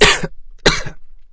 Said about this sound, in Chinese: 说到这儿。刘支队猛烈的咳嗽了几下。